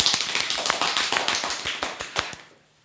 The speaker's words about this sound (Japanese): 今日あのいつものスタジオと違って狭い空間ですので拍手がとても間近で聞こえたと思いますよ。